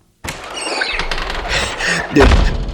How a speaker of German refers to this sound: Was waren das für Vögel? Oh, das habe ich Sie nicht gefragt. Aufgeführt haben Sie sich wie Adler. Es waren Sittiche, wenn mir diese Bemerkung erlaubt ist. Sittiche.